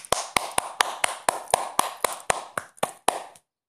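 A steady run of about fourteen sharp, bright hand claps at a brisk, even pace, with a brief stutter near the end before they stop. No one speaks.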